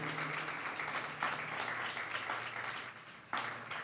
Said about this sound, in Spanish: Tremendo nuestro Jesús, ¿no? Démosle un aplauso a él, démoselo a él, se lo merece.